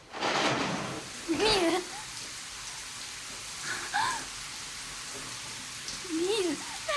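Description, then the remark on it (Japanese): A steady hiss of shower water runs in a bathroom throughout, with a voice calling out over the spray several times. “シャワー浴びてるのねえ聞こえてる”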